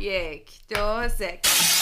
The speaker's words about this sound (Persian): ساوندی که انتخاب کردم شکستن شیشه است